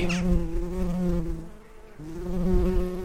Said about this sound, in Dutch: Hallo. Ik sta te kijken in de radiotuin naar een bij.